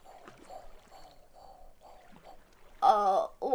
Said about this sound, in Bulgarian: О, вижте, лодки! Всички на борда!